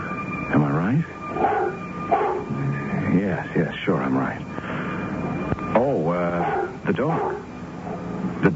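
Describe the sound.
A dog yips, whines and whimpers in short, pitched bursts with brief pauses between them, fairly loud, with some voice-like sounds mixed in.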